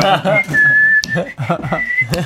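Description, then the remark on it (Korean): A person whistles a few sustained, steady tones with brief breaks between them, while voices chatter and laugh over and around the whistling. “휘파람 소리 들리면 귀뚜라미 소리 들리는 것처럼.”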